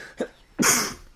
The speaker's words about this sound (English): oh, bless you